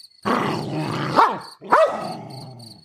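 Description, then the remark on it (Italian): A dog lunges at a person, baring its teeth with a crest of grey hair raised on its neck, snarling and growling continuously and breaking into two sharp, rising barks in the middle, loud and aggressive with no one speaking. “Il cane non mi riconosce. Si lancia contro di me abbaiando, mostrando i denti e rizzando una cresta di peli grigi sul collo.”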